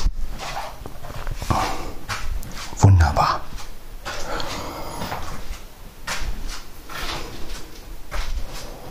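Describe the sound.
A door is pushed shut with a brief low thud near the middle, amid shuffling and handling noises, while a man speaks a word or two.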